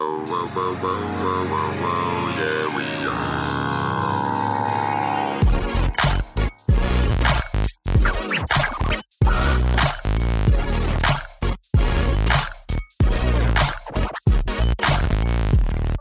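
The opening theme tune of a weekly Overwatch League recap show: a sustained, melodic synth intro for about five seconds, then a loud, bass-heavy section driven by punchy beats and broken up by sudden brief cut-outs.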